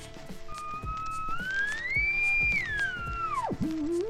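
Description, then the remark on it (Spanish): A theremin, a box-like instrument with an antenna played without touching it, plays one smooth, wavering tone that slides steadily upward, holds high with a light vibrato, then swoops sharply down before settling low, with faint background noise underneath. “presentó por primera vez su instrumento musical de su creación, el theremin”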